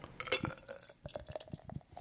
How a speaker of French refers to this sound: je la verse trop fort d'ailleurs, c'est l'émotion. Oh là là, Ron va pas aimer, c'est de la bière en canette